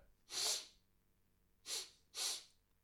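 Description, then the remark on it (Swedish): A voice imitates sniffing the air with three sharp, breathy sniffs, one, then a pause, then two more close together, fairly loud with no talking. “Och så hoppar han ut i vagnen och så tittar han på dig och så sniffar han i luften så här.”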